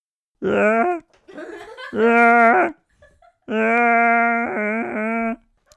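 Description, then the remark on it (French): A goat having its throat cut screams in drawn-out, strained cries, three or four loud wails with short gaps between them, with no other sounds around. “c'était la compile des animaux à l'agonie. Là, c'était la chèvre qu'on égorge.”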